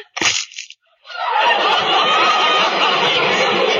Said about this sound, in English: What's that chicken doing in the living room?